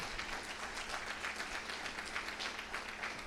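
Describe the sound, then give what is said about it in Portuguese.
An audience applauds God steadily, a dense wash of many hands clapping at once with no pauses, holding an even loudness throughout. “Aplaude a Deus por isso, aplaude.”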